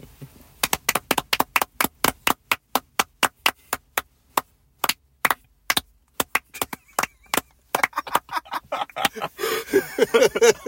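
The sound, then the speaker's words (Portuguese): Sharp, crisp hand claps from a few people applauding their fans, coming in quick bursts with brief pauses, then growing faster and more ragged toward the end as voices and laughter join in. “Uma salva de palmas para os nossos fãs”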